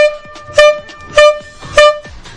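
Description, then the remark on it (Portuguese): Vehicle horns honking together: one steady, droning horn tone runs throughout while three loud, evenly spaced blasts punch through about every half second, harsh, with no talking. “Agora é o combo de buzinas aqui!”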